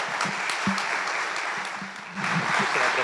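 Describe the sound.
A crowd applauds steadily, a dense wash of clapping from many hands filling the room, with a few indistinct voices murmuring underneath and the clapping swelling slightly near the end.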